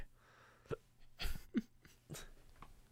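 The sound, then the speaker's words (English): A person hiccups several times in a row, about five short, abrupt gulping bursts at uneven intervals, with no talking in between. “you got the hiccups now?”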